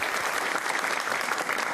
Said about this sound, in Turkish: E, o zaman alkışlarla Irmak'ı sahneye davet edelim.